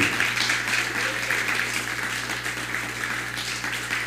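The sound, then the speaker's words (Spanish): Steady audience applause during a live Shavuot religious broadcast, given for Mari Ávila of Puerto Rico: a dense wash of many hands clapping at an even, fairly loud level throughout, with a low constant hum beneath and no clear voices. “Dele un fuerte aplauso a, Mari de Puerto Rico.”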